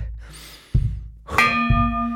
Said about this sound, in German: Der nächste Glockenschlag ist der zwölfte und der letzte.